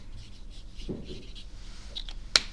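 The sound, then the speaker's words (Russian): Faint scratching of a pen moving across paper in a few short strokes while writing the term lupus erythematosus, ending with a sharp little tap, with no talking. “Где здесь мы еще напишем?”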